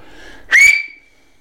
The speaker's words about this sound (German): Kannst du pfeifen? Ich kann leider nicht so pfeifen.